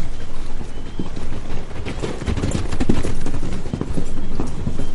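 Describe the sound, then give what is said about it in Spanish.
Steady clip-clop of hooves as a horse ridden by a man trots at an even pace along a hard road, moderately loud, with a faint outdoor rumble underneath and no voices. “La primera por un hombre a caballo que recorre al trote la calzada.”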